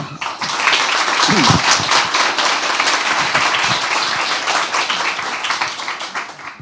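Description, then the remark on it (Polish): A large audience applauds loudly and steadily to welcome a guest at a meeting, dense overlapping claps filling the whole stretch without letting up, with a brief voice sound rising faintly near the start. “Długość oklasków mierzyłem, były bardzo długie.”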